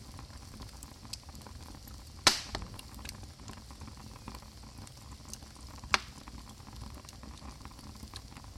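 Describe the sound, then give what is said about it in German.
A fire crackles steadily with a soft, hissing rustle, broken by two sharp, louder pops a few seconds apart and scattered smaller ticks; no one speaks. “Machen Sie jetzt mal das Feuer aus ja?”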